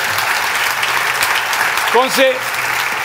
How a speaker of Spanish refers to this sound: Eh, un aplauso para el tocayo.